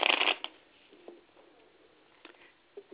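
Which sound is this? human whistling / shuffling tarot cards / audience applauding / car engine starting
shuffling tarot cards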